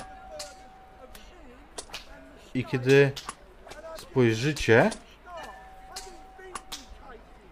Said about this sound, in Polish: słyszycie przed sobą dźwięk, który wydaje wam się znajomy. dźwięk, który ewidentnie słychać w nim uderzenia pejczy, jakichś batów o ciała.